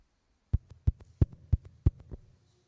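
Someone raps on a door about a dozen times in a quick, steady rhythm, loud heavy knocks alternating with lighter taps, with no voices.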